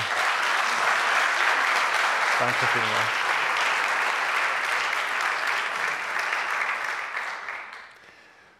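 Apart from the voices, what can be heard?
audience applause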